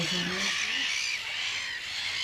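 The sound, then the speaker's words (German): A dense, continuous clamor of many breeding-colony birds calling at once in alarm as a harrier, a bird of prey, circles overhead, a loud, agitated wash of shrill cries filling the whole stretch without pause. “Es wird laut. Irgendetwas scheint die ansonsten entspannten Vögel zu irritieren, zu verunsichern.”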